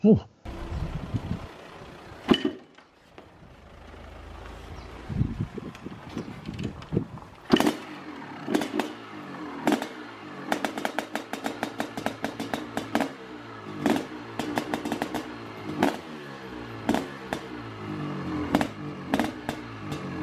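A two-stroke 500cc CR500 motorcycle engine is started and revs loudly in uneven bursts, its harsh buzzing rising and falling, punctuated by a rapid series of sharp crackling pops and bangs.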